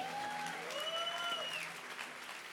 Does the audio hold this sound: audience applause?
yes